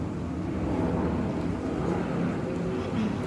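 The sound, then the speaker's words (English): A steady, low droning rumble of an airplane flying overhead, holding an even loudness throughout with no voices. “There's another plane.”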